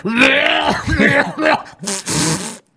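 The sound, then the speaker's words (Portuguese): A voice imitates old men coughing: a run of rough, wheezy hacking coughs with throaty groans, loud, in several bursts over a few seconds. “Os velhos começavam a tossir.”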